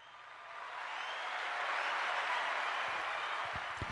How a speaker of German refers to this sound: Ich habe aber hier nur so Sachen wie zum Beispiel Applaus.